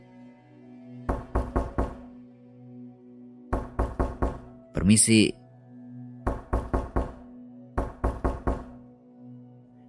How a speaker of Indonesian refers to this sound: Tapi sekarang ketutup rapat. Dia ketuk-ketuk tuh pintunya.